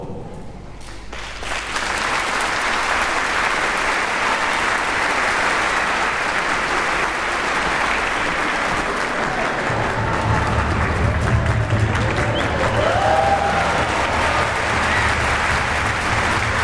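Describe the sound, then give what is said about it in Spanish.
Sustained audience applause welcoming la maestra Pimpolina and the OFUNAM, who perform Concerto per Copa e Corpo. A dense steady wash of many hands clapping that starts abruptly and holds at an even, loud level for the whole stretch, with no talking over it. “Recibámosla con un fuerte aplauchísimo.”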